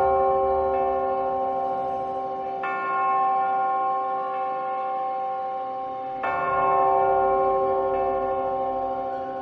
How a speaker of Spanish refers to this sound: Las campanas del ayuntamiento comenzaron a tocar marcando las cinco y media de la madrugada.